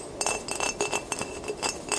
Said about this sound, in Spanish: sonido era el de un dedo golpeando el vidrio. Otra vez.